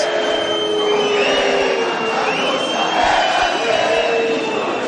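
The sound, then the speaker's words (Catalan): A large crowd of a young rival group chants a provocative reply together, loudly and steadily, a dense wall of massed voices with sustained, sung tones rising over a roaring background for the full few seconds. “És un càntic provocador, però que mostra clarament el que ha passat avui.”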